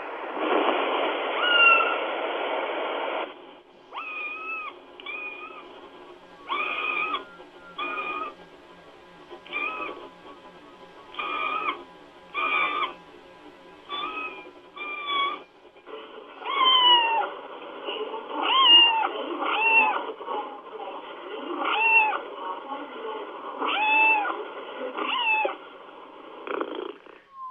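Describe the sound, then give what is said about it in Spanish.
Kittens calling their mother meow over and over in high, thin calls, many short cries in quick succession and some overlapping, with a rougher, louder stretch at the start and no talking. “Y aquí les muestro una de cachorritos este llamando a su a su mamá.”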